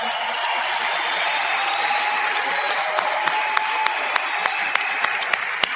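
An audience applauds steadily in a dense, continuous wash of clapping, with a few sharper individual claps standing out in a loose rhythm toward the end. No one speaks.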